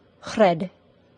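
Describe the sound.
A single short syllable voiced with a tapped R, the kind not used in the general American accent: the tongue flicks once, briefly interrupting the sound near its end. It stands alone against quiet background.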